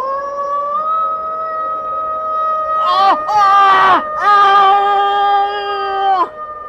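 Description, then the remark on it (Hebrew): A dog howls in one long, drawn-out, wavering cry that lasts several seconds, swelling louder and rougher in the middle before breaking off sharply near the end. “הכלב!”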